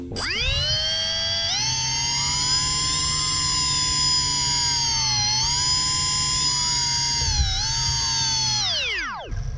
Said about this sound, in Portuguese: É o motorzinho do dentista. Parece, né? Não, esse é um Phantom sem as hélices, só o motor girando.